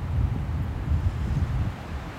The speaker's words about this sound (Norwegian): Litt vind her nå. Helt sykt, i hvert fall.